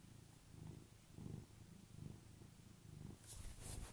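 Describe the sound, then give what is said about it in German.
A pet cat purrs steadily, a low rumbling vibration that swells and fades in slow, regular cycles, with some brief rustling near the end and no one talking. “Und schau mal hier meine Katze.”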